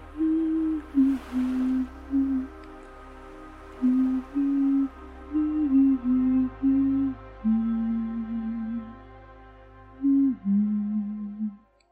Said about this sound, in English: That day was a little more beautiful than usual the sunset and the dim light, and I started humming silently to myself.